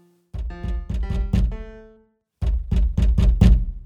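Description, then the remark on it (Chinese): A few ringing piano notes play, then after a brief silence come five firm, evenly spaced knocks on a door, loud and low-pitched, with no talking. “诶，是谁在敲门？”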